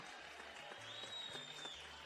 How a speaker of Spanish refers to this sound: El aplauso para el eterno …